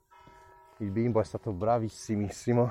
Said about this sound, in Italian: Non so se sentite le campane, ma sta mezzogiorno e 10 minuti e suonano ancora le campane. Boh, non si capisce.